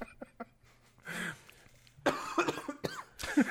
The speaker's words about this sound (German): Das Husten ne, mittendrin ist immer so toll.